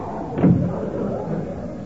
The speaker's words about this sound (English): Close that door. You're cooling off my coffee.